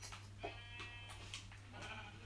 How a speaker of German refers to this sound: Achtung, scharf, du musst was scheren. Gott, zwei Schafe.